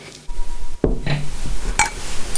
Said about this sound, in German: und auf diese fünf Mädchen und Frauen trinken, einen Gruß an ihre Familien senden und deswegen möchte ich mit euch anstoßen auf das Gestalten einer besseren Welt.